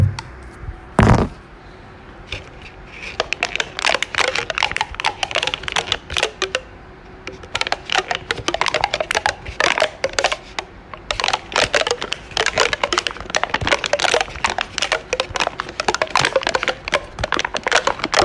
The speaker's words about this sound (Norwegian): Det det var ikke en kul lyd? Det De altså driver og vrir og vrenger litt på den der eh, plastikken. De gjør ikke noe spesielt. Er ikke det eh, Jeg, sy jeg syns det var kult. Nesten som en sånn melodi. Det er en melodi der.